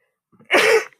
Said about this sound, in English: Bless you. Pardon me.